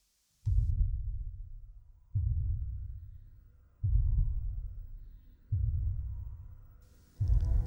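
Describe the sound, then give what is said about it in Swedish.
A music track dominated by heavy, deep bass, with booming low notes pulsing at a slow, steady rhythm about every second and a half, each swelling then fading, with little else above. “lågbas för hela slanten här.”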